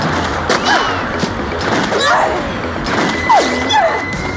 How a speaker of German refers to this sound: Ich lief, ich rannte und ich wusste, als der nächste Schuss krachte, dass ich nicht mehr lange zu leben hatte.